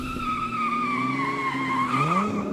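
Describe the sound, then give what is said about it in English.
Car tires squeal in a long, sustained skid on a ramp that winds around a building, the car doing 85 with broken steering and out of control; a high screeching whine that wavers and bends in pitch as the vehicle swerves, loud with engine rumble underneath. “Well, it wasn't built for cars doing 85.”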